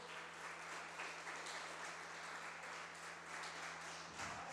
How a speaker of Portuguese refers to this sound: E se tem alguém aqui que acredita nisso, aplauda Jesus bem alto.